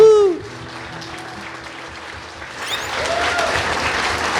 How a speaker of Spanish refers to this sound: Gloria a Dios. Dale un aplauso a Dios.